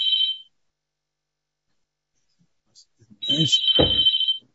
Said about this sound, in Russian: Телефон вдруг зазвонил.